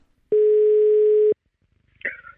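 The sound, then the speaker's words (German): A single steady electronic ringback tone from an outgoing phone call sounds loud for about a second, then stops, followed by a brief faint voice as someone picks up. “Servus …, schön, dass du rangehst.”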